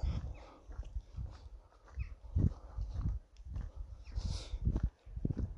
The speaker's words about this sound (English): Just because it's annoying to, um, I guess, listen to the crunch of gravel under my feet, you know? But once again, going for a walk.